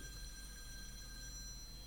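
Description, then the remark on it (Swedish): A telephone rings quietly in the background, its ringtone a steady, thin electronic tone that continues unbroken with no one speaking. “Ja, det ringer lite här.”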